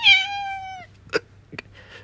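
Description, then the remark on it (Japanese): A pet house cat lets out one clear, drawn-out meow, followed by a couple of brief soft rustles or thumps against otherwise quiet surroundings. “もうすもすでに可愛い声しますね。”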